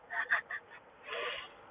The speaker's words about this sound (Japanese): はい泣いてないよ泣いてないですよあの鼻すすっただけですけどはい花粉症だから鼻すすっただけです